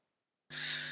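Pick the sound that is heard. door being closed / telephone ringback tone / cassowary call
cassowary call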